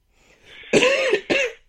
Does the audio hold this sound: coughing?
yes